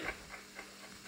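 Steady mechanical ticking from the clockwork mechanism of a huge telescope, about four soft ticks per second in an even rhythm, faint and alone over a low background hum.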